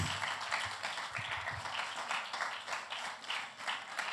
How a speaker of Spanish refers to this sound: denles aplauso fuerte al Eterno si pueden el día de hoy.